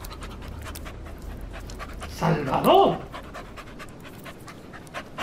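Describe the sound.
Dogs pant steadily in quick, breathy rhythm with a low growling undertone throughout, while a single loud shout from a person breaks in briefly midway.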